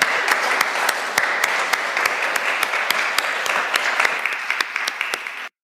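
An audience at a church service applauds steadily, a dense wash of many hands clapping with a few sharper individual claps standing out, holding an even loudness before cutting off abruptly.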